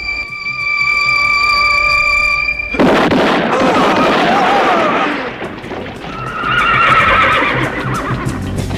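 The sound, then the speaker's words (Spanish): A mule brays loudly, starting with a steady, sustained tone before breaking into harsh, wavering whinnies, then one more shorter cry after a brief pause. No one speaks. “A mi mula no le agradaron las risas. Llega a pensar que se ríen de ella.”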